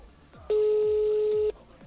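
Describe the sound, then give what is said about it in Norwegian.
A single loud, steady ringback tone of an outgoing phone call sounds for about one second, with faint murmuring voices in the background before and after it. “Jeg ringer ned.”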